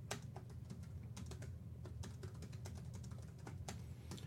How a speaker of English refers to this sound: I'm a good uh, multitasker, except when it comes to typing and talking at the same time.